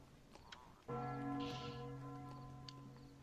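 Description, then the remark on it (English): A single deep bell strikes suddenly and loudly, its rich ringing tones sustaining and slowly fading, with no voices present. “Bell.”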